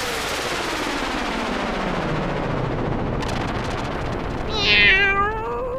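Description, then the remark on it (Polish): A cat lets out a loud, drawn-out meow near the end, preceded by a lower, sliding cry, all over a dense, noisy, rumbling background. “Wy też słyszycie kota?”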